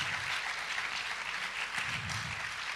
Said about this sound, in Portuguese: Que coisa tremenda, irmãos. Aplauda o Senhor. Amém.